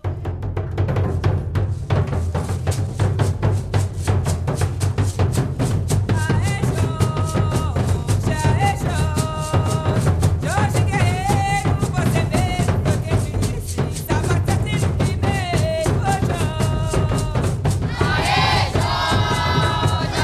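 A short candombe piece plays a dense, driving hand-drum rhythm on a Mozambican base beat, steady and loud throughout, with a group of voices chanting or singing along over the beat.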